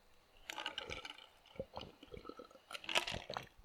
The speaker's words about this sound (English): Ah, it's a great, great glass of water. I actually put a little lemonade in the top. That added a lot of, a lot of zing to the to the glass. Now the reason I give you the absolutely annoying sounds of me drinking water